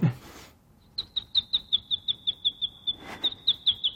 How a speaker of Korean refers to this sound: 새소리! 네, 뭐였죠? 맞아요. 제가 냈는데 예. 들려드릴게요.